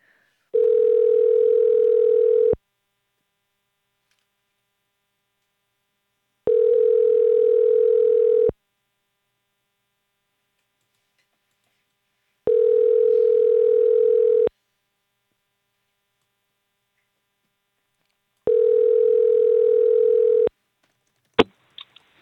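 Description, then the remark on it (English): A telephone ringback tone buzzes four times while a call is placed about an ad for church pews, each steady two-second tone separated by about four seconds of silence, followed by a sharp click as the line picks up at the end. “They look really kind of weird, so I thought I would call.”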